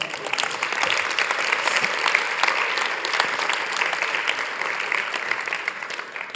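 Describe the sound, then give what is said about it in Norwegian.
Steady applause from an audience giving God a round of applause fills the whole stretch, a dense wash of many hands clapping at a fairly even level without letting up, with no voices standing out. “Kan ikke gi Gud en klapp, da.”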